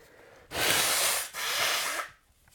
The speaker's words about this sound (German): Sorry, ich muss mir schon wieder die Nase putzen.